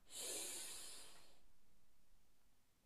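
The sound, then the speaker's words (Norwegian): A deep, airy inhale through the nose lasting just over a second, clear, followed by quiet stillness with no talking. “Pust godt inn med nesa.”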